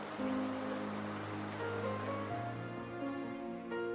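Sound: heavy pouring rain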